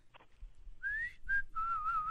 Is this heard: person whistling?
yes